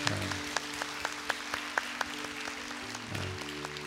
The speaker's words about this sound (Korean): 우리 그런 마음으로 우리의 인생을 여기까지 오게 하신 우리 하나님 앞에 영광의 박수 올려드릴까요?